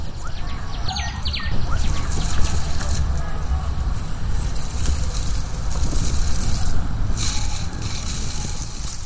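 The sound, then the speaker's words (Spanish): A few brief, high chirps of birds singing early on, fairly faint, set against a steady outdoor rush of wind and low rumble that fills the whole recording. “Mientras Karen seguía el camino hacia su vivienda, le gustaba gozar del paisaje que tenía enfrente, la naturaleza, con la vegetación y los pájaros cantándole.”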